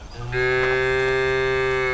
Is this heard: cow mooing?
yes